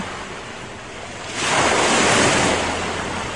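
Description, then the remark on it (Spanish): Ocean waves wash against a small boat, a steady hiss of water swelling into a loud surge midway and slowly easing off, with wind blowing underneath and no voices. “Mientras tanto, las olas seguían golpeando al barquito.”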